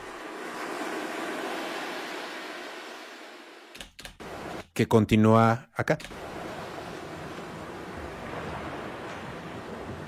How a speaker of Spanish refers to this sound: pero entonces empieza medio un, un ventarrón.